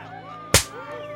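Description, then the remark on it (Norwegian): A single sharp, loud slap cracks out midway, brief, over a quiet, steady tonal background hum: the executioner Sanson's assistant slapping the cheek of Charlotte Corday's severed head after her beheading. “Plutselig hører jeg et klask. Den slyngen ga henne en ørefik.”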